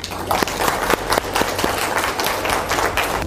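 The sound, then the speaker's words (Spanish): An audience claps steadily for a few seconds for Dr. Carmen González at a presentation of the book El sueño sagrado, a dense patter of many hands with a handful of sharper individual claps standing out, holding an even loudness throughout. “Así que nada más un aplauso para la doctora Carmen González.”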